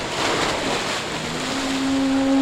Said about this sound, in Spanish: Es el choque de las olas contra las rocas.